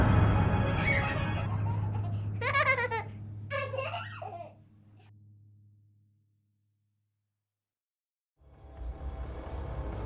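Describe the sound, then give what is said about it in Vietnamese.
A newborn baby's high, giggling laugh rises in short bursts over a low steady drone, sounding eerie, then fades into silence before a rumbling noise swells at the end; the baby is in a hospital. “Trong chớp mắt đứa trẻ đó đỏ hòn như còn nguyên dây rốn kia Tự mình bật dậy Hai bàn tay bé xíu của nó chống xuống đất Cái đầu từ từ xoay lại phía của anh ta Rồi nó nhoèn miệng cười đầy quái đản”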